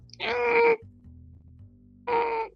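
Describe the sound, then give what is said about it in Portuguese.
Two drawn-out, groaning creaks of wooden stairs under someone's weight as they step down the staircase, fairly loud, separated by a pause filled with a low, steady rumble. “a madeira rangendo.”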